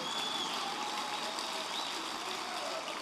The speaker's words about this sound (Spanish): Ahora están aplaudiendo mucho, como quiera se delataron ya.